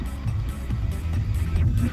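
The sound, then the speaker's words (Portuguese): A car rolls along a rough dirt road covered in fine dust about 3 centimetres deep, its engine and tires making a steady, low rumble with faint rattling and gritty noise, continuous throughout. “Você tá andando aqui, o carro tá parando de tanto pó.”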